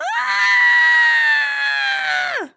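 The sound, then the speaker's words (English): A person imitates a frog's startled scream: a single loud, sustained, high-pitched wail lasting about two seconds, with a quick rise at the start and a sharp downward drop at the end. “It was a frog who screamed.”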